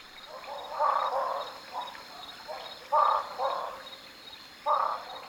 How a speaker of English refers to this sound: My oh my, do I love these frogs! Their resonant calls no doubt amplified by the cavities in which they dwell.